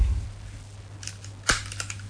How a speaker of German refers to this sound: Guck mal, äh, was ich übrigens noch mitgebracht habe, ähm, das ist hier so ein Klammergerät. Ja. Und wenn du nichts dagegen hättest, dann würde ich dir jetzt gerne deine Nase zusammenklammern.